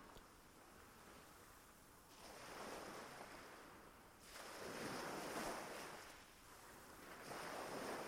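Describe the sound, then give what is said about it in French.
Ocean waves wash in and recede on a beach in broad, repeating surges, each swell building into a hissing rush before easing back, with a steady windy wash underneath and no voices. “Vous mettez des images sur ces différents sons, sur le son de l'eau, peut-être même des sensations.”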